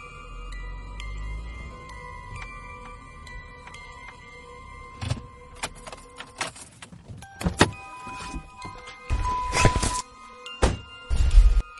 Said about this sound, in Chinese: 大门口开过来两辆汽车，车上下来了五六个人